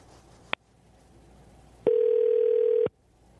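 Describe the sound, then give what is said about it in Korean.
A telephone ringback tone sounds once as a radio host places a call to a listener: a short click, then a single steady, loud electronic ring burst of about a second, with no talking. “자, 3110님 전화 한번 걸어볼게요.”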